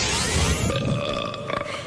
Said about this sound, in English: Yeah, a sort of holy um, light emerges from him, and then he does a big burp